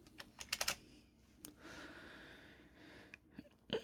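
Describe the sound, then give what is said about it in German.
Quick clusters of computer keyboard clicks, a burst of several taps early on, then scattered single keystrokes, quiet against a soft background hiss. “Wenn irgendjemand irgendwas tippen muss, kann er sich halt sofort muten, dann hast du dieses Getippe nicht in der Aufnahme.”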